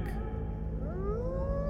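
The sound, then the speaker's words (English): Several long, rising howls overlap over a low rumble, a chorus of many wolves drifting up from down in a valley, steady and mournful. “But as I listened, I heard, as if from down below in the valley, the howling of many wolves.”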